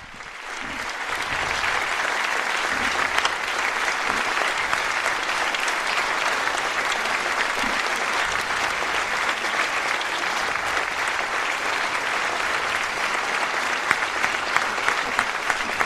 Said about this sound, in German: Der Applaus hält immer noch an. Inzwischen sind auch alle aufgestanden.